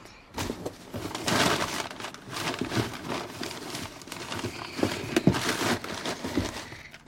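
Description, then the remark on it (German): Continuous rustling, scraping and clattering as hands dig through a cardboard box searching for an audio cassette, with irregular knocks and crinkles rising and falling over several seconds; no one speaks. “Suchen Sie im Karton nach der Tonkassette.”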